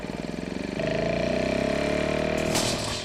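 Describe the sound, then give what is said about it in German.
A small lawnmower engine runs steadily, its loud mechanical drone pulsing rhythmically and rising in pitch slightly after it revs up near the start. “Meine Küchengeräte zum Einsatz kommen ein Kochlöffel, ein Rasenmäher,”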